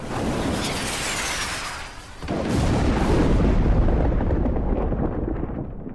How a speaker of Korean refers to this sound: 우레와 음성과 번개와 지진이 나더라